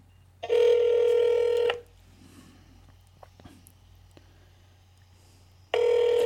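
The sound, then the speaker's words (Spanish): Two loud, steady ringback tones from a cell phone call returning a dropped call, each lasting over a second with a long quiet gap between them, heard alone against faint background noise. “Ahí disculpen el, el tono del celular.”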